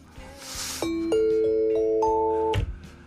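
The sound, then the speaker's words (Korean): A bright ding-dong-dang chime rings out in rising steps, each tone sustaining and overlapping, ending in a short clatter, over soft background noise with no talk. “공감의 딩동댕이냐고 계속 물어보시는 분들이 있는데 그건 잘 모르겠어요.”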